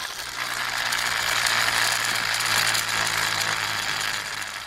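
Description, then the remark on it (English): Small toy car wheels are run up a man's arm to create a machine rumble sound effect, making a continuous clattering whir like a tiny ratcheting machine, with a low hum underneath that holds for several seconds. “From running toy cars up his arm to create a machine rumble.”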